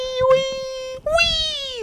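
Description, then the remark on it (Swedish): A voice imitates a whimpering pig to show how a reaction of approval sounds, with two long, high, nasal squeals, the first steady and the second rising then slowly sliding down, loud and alone. “Ja, som en gris som kvider.”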